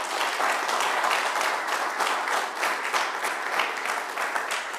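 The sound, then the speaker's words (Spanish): A church audience claps for the Lord during a sermon, steadily and loudly, many hands blending into a dense, continuous wash of applause that holds at an even level for several seconds with no voices on top. “Dele palmas al Señor.”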